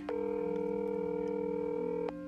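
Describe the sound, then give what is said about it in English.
A phone ringback tone of an outgoing call sounds once, a steady electronic hum lasting about two seconds before cutting off, clear with no voices. “This is a very this is a very tragic time and you decide not to answer your phone?”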